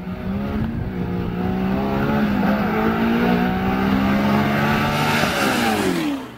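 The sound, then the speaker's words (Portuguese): A Chevrolet DZ302 V8 engine revs loudly, its deep harmonic roar holding steady, climbing in pitch, then dropping off sharply at the end. No one speaks. “vocês ouviram é o motor 302. Mas não o 302 Ford de Maverick, de Mustang, o famoso Windsor, mas sim o DZ302 Chevrolet.”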